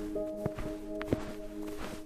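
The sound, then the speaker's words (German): Slow footsteps in thick snow boots crunch through deep snow in a garden behind a house, sinking ankle-deep, three or four muffled steps at an unhurried pace as it grows dark, set against a steady sustained tonal drone in the background. No one speaks. “Zum Glück trägst du dicke Schneestiefel, denn du versinkst schon bei den ersten Schritten knöcheltief in dem weißen Pulver.”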